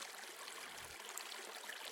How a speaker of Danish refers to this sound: så nu løber vandet af dig i skovbunden, så alle planter, træer og dyr kan leve.